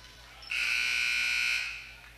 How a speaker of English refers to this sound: And we'll have whistle and a jump ball called.